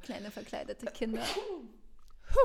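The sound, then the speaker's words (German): A person speaks briefly, then after a short pause a single sudden, sharp, loud sneeze bursts out near the end. “Gesundheit.”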